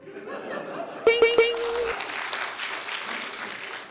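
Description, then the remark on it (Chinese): An audience breaks into applause, a dense wash of clapping that swells after a brief opening and carries on steadily, with some laughter and chatter mixed into the crowd noise. “我相信鼓掌的你们和我一样困惑，我也不知道，有可能是我们班选班委那天大家都喝了不少吧。”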